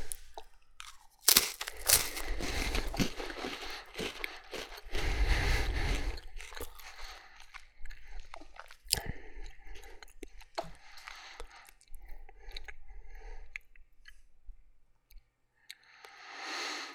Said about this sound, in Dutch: ik zit momenteel een cracker te eten